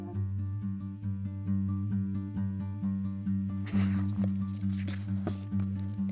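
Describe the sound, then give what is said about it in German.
Soft, crisp papery rustling, like pages being turned, comes in close bursts during the second half over a steady, low pitched hum that runs throughout. “Also es soll ja bestimmt nicht so sein, aber man hört richtig ASMR-mäßig, wie die Seiten geblättert”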